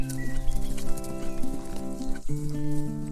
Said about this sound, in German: Doch dann hörst du noch etwas anderes. Hufgetrappel. Tatsächlich. Als du deine Augen wieder öffnest, siehst du zwei hellbraune Pferde auf dich zukommen.